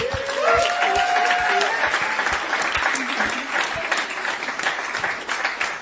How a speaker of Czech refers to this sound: Já bych chtěla ještě jednou dát potlesk téhle skvělé bandě, co tady byla.